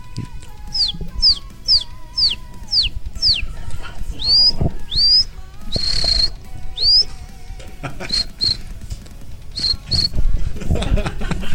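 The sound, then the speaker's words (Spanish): Someone imitates a cricket with a quick series of high, whistled chirps, about a dozen in a row, then a few longer squeaky tones, fairly loud over faint background noise. “Pues nada más es un pollo y a la vez se puede transformar en un grillo, güey.”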